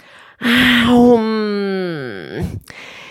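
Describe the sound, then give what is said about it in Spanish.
A storyteller's voice imitates a big, drawn-out yawn, starting with a sharp intake, stretching into a long sliding moan that falls in pitch, and ending in a breathy release, loud. “El problema era su boca, porque Goz a veces tenía sueño, como cualquiera, o se aburría, y entonces abría la boca, bostezaba,”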